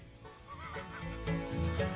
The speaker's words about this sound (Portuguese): Após o vídeo viralizar, o Museu Shimei, onde ocorreu o ataque, informou que o ganso que perpetrou o ataque se chama Beckham.